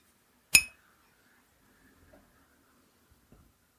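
beer glasses clinking

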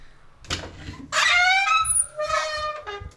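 door being opened

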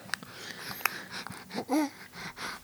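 heavy wheezing breathing

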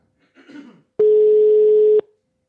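phone call ringing tone

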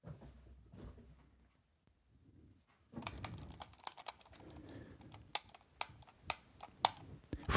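clicking on a computer

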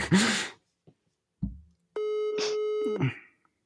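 phone call ringing tone

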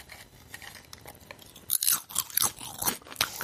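crunching potato chips

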